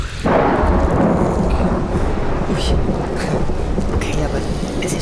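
rain with thunder

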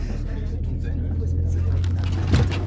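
bus engine running

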